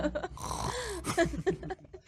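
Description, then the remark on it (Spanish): A person fakes a loud snore right into the microphone, a harsh, rattling nasal snort that stretches for about a second, followed by breathy chuckling and short vocal bursts. “Perdona a nuestros oyentes que acabo de roncar el micrófono.”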